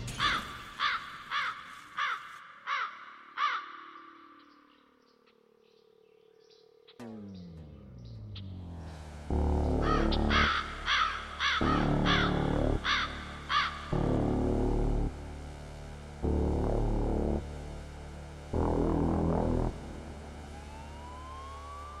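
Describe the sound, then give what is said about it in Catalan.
A crow gives a quick series of harsh, rasping caws, then after a low droning lull, louder repeated caws ring out in bursts over a deep, heavy rumble. No one speaks. “People once believed that when someone dies, crow carries the soul to the land of the dead.”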